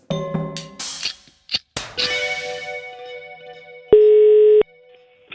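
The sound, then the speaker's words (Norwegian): A phone line connecting on an outgoing telephone call: a few electronic beeps and clicks, a faint hum, then one loud, steady ringback tone burst lasting under a second. No one speaks. “Jeg, tror, jeg syns vi bare skal ringe han med en gang.”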